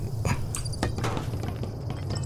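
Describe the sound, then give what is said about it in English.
Several small balls, knocked off something, tumble down and clatter, a quick irregular run of light knocks and taps over a steady low background hum, moderately loud, with no one speaking. “I just knocked the balls off of this thing.”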